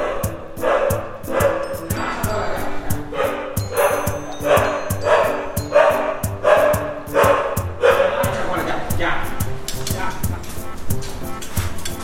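A dog barks repeatedly in a steady series of sharp yelps, loud, with a few brief pauses and some background noise underneath. The dog is Chagualita, a female dog living at La Ranchita, a house and hostel.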